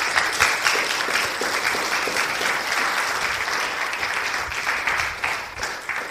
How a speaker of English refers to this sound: So let's just give a hand clap for those that have done that because that's a big deal.